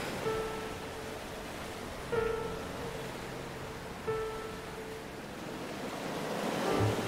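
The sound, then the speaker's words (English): Steady wash of ocean surf rolling onto a shore, swelling louder near the end, with a faint tonal chime recurring roughly every two seconds above the hiss. No one speaks. “I jumped over the foamy edges of each wave until I make it over the breaker line.”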